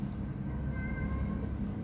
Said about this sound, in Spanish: Se escucha un gato, eh.